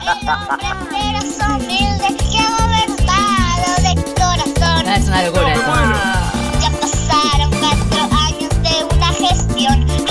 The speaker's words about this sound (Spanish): Escucha, escucha. ¿Estás escuchando? Está cantando un nene.